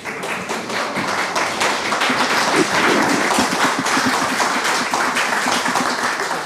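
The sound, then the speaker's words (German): An audience at a live recording breaks into steady applause, many hands clapping in a dense, loud wash of crackling claps that holds evenly for several seconds without any talking. “Und das Schöne an dem Live-Podcast war natürlich auch, es gab etwas, was wir so sonst nicht bekommen. Applaus!”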